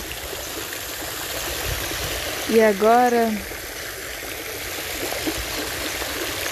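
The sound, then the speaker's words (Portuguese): Steady, continuous rushing of a waterfall fills the whole clip, a broad even wash of flowing water, with a voice speaking briefly over it midway. “E agora você se levanta dessa pedra e você vai caminhando em direção à cachoeira.”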